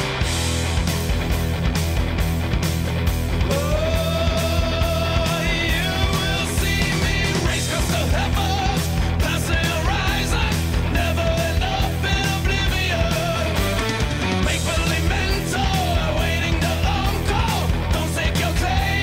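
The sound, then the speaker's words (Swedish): A loud, dense new heavy metal song by a band from Trondheim plays throughout, with pounding drums, thick distorted guitars and a strained, shouting lead vocal riding on top. “Det känns som många har som livsutmaning nu att få mig att gilla ny heavy metal.”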